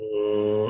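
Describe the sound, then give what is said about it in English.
A person hums a deep, steady tone for under a second, imitating the low droning hum of the sound of the Earth heard in the middle of Iceland, moderately loud, with no words spoken. “Deep hum.”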